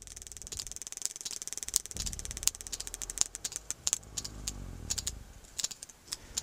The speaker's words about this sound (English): That clicking is coming from a sperm whale as it removes black cod from a fishing line.